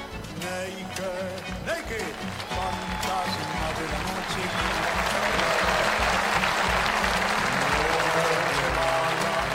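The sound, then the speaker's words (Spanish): An audience claps in tribute to the poet Ramón Ayala, the applause swelling from a scattered start into a loud, dense, sustained ovation; a voice can be heard speaking over it early on. “En alto el aplauso, en alto el aplauso, claro que sí a un hombre que supo poner al hombre delante del paisaje para contar su historia”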